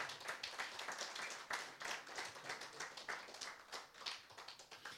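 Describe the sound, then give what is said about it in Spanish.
A room full of people applauds steadily for the Lord before a prayer, dense overlapping claps with quick irregular bursts, sustained for several seconds with no talking. “Si lo creemos, mis hermanos, démosle un fuerte aplauso a nuestro Señor y vamos a orar.”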